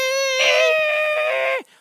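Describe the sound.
A voice imitates a loud, sustained feedback whistle: one steady high-pitched squeal with strong overtones, held for about a second and a half before dropping off abruptly.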